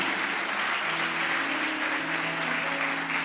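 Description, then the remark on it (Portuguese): An audience claps steadily throughout, giving a round of applause for Jesus while the preacher drinks water, a dense, sustained wash of applause at an even, loud level, with faint sustained tones humming underneath. “Dê uma salva de palmas para Jesus enquanto eu bebo água aqui.”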